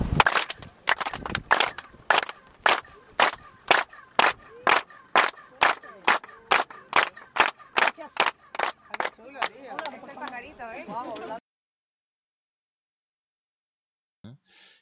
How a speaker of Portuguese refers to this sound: A la cuenta de tres, comenzamos a aplaudir, no como loquitos, rítmicamente para escucharlo nítidamente. A la cuenta de tres. Uno, dos, tres.